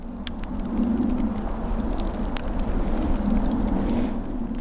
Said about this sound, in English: Two things going on there. I hear you squeaking through snow, but I also hear a fire crackling. Yeah, yeah, there was. Uh, so uh, there was snow. Yes, there was snow on the ground.